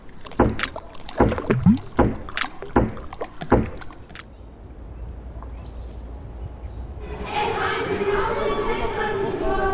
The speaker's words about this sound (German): Damit es in der Au so leise bzw. plätschernd bleibt, wurden eine Menge Leute am 2. Juli in der Wiener Innenstadt laut.